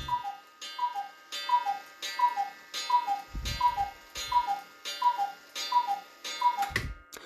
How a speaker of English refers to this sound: Sorry, my cuckoo clock just decided to interrupt me.